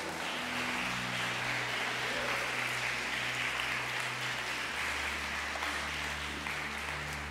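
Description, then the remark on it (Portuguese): An audience applauds Jesus in a dense, steady wash of clapping that lasts about seven seconds, with low sustained instrumental tones humming beneath it and no talking. “Você podia ter aplaudido a Jesus nessa aí.”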